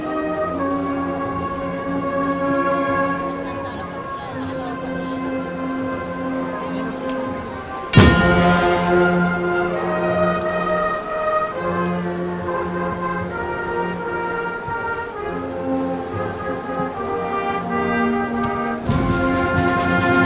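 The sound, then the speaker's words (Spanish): A Holy Week procession band plays the march "Sangre en tu clavo" for the first paso of the Clemencia brotherhood, Nuestro Padre Jesús de la Caída, on the official route. Brass holds full sustained chords, with a sudden loud crash of drum and cymbal partway through before the chords continue steadily. “Escuchamos compañeros Sangre en tu clavo.”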